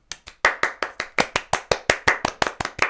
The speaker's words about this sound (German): Applaus.